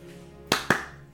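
Two sharp hand claps in quick succession, the second slightly louder, over a faint low hum. No one speaks.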